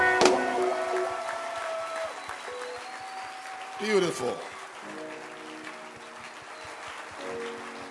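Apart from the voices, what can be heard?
audience clapping hands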